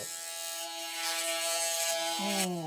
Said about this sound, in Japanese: あの、剃ってる時にですね、髭を剃ってる時にチッって音が鳴るんですよ。で、この音が鳴ると、あ、それてるなっていうのがわかるんですよね。